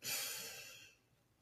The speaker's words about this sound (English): Ah, I'm breathing better than when I first started looking at my breathing. So simply by noticing, I've created change.